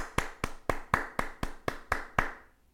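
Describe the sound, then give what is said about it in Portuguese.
A steady run of about nine sharp hand claps at a brisk, even pace, each with a short echo, with no talking, as audience members clap at a film's final scene. “Avião, bater palmas, já és bronco.”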